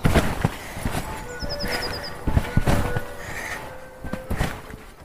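Children bouncing on a garden trampoline, with a steady run of soft, close thumps and brief squeaky spring creaks between the landings, continuing throughout.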